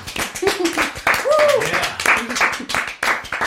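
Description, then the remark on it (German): A short burst of scattered hand claps from a few people, lasting a few seconds, with voices and laughter mixed in over it. “Kleiner Applaus.”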